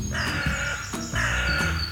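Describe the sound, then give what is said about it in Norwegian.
Crows caw twice in a row, each call a long, harsh, raspy note, loud with no talking. “Kråker, skjærer og kaier finner man så å si i alle byer og tettsteder.”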